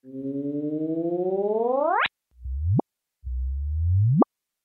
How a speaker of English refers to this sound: So what you're actually hearing is the two black holes colliding in real time. And th- like this is actually how fast it takes for the two black holes to swirl around each other, you know, about the speed of a blender and come together.